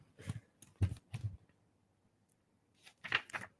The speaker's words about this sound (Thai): กำลังพลิกหน้าอยู่นะครับ